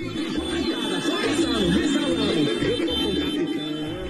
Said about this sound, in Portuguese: Esse aí foi na Praça Portugal, em Fortaleza. O vídeo é do jornal O Povo, do Ceará. Os apoiadores do presidente vão buzinando ali nas motos, e aí passa um carro preto.